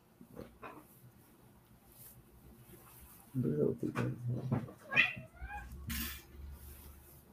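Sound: cat meowing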